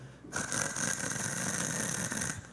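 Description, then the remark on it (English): A voice imitates a white noise machine, a small plastic unit with different settings, with a steady, breathy hiss, held evenly for about two seconds and then cut off, moderately loud. “It has different settings, right. and one of which is white noise, okay? And it sounds like,”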